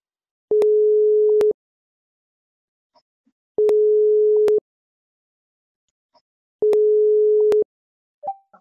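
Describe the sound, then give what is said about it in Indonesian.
A telephone ringback tone: three steady, clear electronic beeps, each lasting about a second with roughly two seconds of silence between them, ending with a faint click as the line connects. “Lu telepon.”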